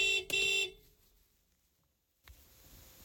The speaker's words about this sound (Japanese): 熊いませんように。ちょっとクラクションの話しとこ